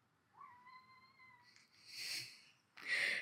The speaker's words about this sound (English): And our cat wants to join us.